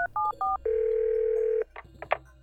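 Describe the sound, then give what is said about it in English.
Three quick two-tone telephone keypad beeps as a woman dials 911 on a telephone mounted just inside a kitchen, followed by a long steady line tone and a few soft handset clicks, clear with no voices. “She tiptoes over to the phone, picks it up, and dials 911.”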